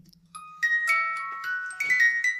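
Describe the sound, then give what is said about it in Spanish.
A music box with a wooden airplane that spins around an Eiffel Tower starts up and tinkles out a delicate melody of plucked metallic notes, faint, with a soft mechanical ticking beneath. No one speaks. “¿Me activas la cajita de música, por favor? Porque quiero que veas, aparte que tiene sonido para acompañar la lectura.”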